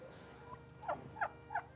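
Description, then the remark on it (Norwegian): A voice imitates a turkey with three short, warbling gobble-like bursts in quick succession, fairly loud over a faint background hiss. “Lag noe lyd av kalkun kalkun.”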